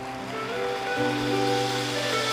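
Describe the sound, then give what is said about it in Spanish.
Loud, steady applause from a large crowd, a dense wash of clapping with sustained musical tones humming underneath and no voices on top. “Dale un fuerte aplauso.”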